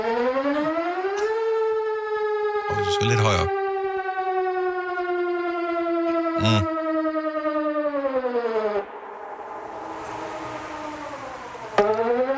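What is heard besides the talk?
civil defense siren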